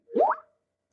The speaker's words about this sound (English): That sound you hear is people sending me messages on Skype.